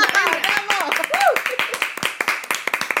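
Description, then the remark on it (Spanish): A burst of applause before a musical break: many hands clapping in quick, uneven bursts, with excited voices calling out over the first half before the clapping continues on its own. “Ya, un aplauso.”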